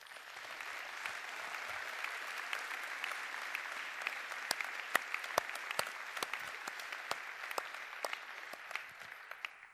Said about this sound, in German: Und ich bitte euch um einen ganz herzlichen Applaus